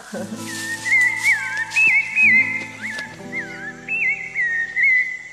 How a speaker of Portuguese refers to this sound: Foram anos e anos de estudo do canto do sabiá.